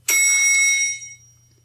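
A single bright elevator ding, a bell-like chime with a sharp strike and shimmering high overtones that ring out and fade over about a second, over a faint low hum.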